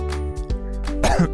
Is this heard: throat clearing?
yes